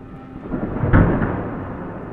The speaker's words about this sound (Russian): Дом сотрясал раскат грома, что внезапно обрушился на мою крышу и голову.